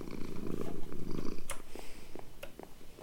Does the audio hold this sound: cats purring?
yes